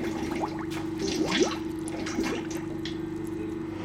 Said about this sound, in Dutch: Want nu hoor ik allemaal gebubbel. Wat is dat? Eh, fermentatie is begonnen. Dat betekent dat die gisten nu die suikers opeten en produceren alvast koolzuur. En die koolzuur ontsnapt via die watersloot weer naar buiten.